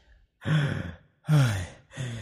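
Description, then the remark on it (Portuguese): A voice imitates the heavy, out-of-breath panting of a wolf in a told story: three loud, breathy gasping exhales in quick succession, clear, with no talking. “O lobo chegou e falou ainda ofegante.”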